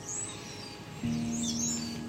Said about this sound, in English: There's a starling on my chimney stack, and it's making the most extraordinary noises, kind of chirping and then clicking.